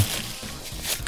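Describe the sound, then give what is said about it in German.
Crackly rustling of a thin paper napkin being crumpled, a quick irregular burst of crinkles lasting about a second with no voices. “das hört sich so an, wie, wie, wie so Butterbrotpapier, das zerknüllt wird.”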